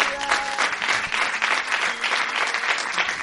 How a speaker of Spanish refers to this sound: Bueno, un aplauso para el gran Ramón Oliva.